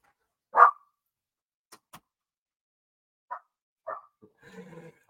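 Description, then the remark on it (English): A dog lets out one sharp, loud bark, then two quieter barks a few seconds later, with a couple of light clicks and some soft rustling around them and no talking. “I would have taken other appropriate dog measures.”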